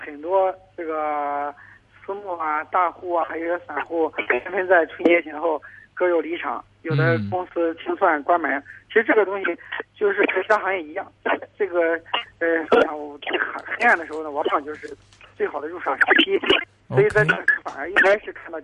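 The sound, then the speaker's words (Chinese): A man talks continuously in Chinese about the securities industry over an unstable telephone line: thin, narrowband voice with a steady low hum underneath and a couple of brief crackling glitches and momentary dropouts. “不好意思，电话线路现在好像有点不稳定，您可以尝试找一个相对 哎 信号好些地方吗？”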